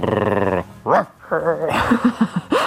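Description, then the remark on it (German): A woman wearing a dog mask in a sex shop vocally imitates a dog in her first attempts at barking, starting with a drawn-out howl-like tone, then a few rising yelps and a quick run of four short barks, fairly loud. “wie sie da ihre ersten Bellversuche gemacht hat.”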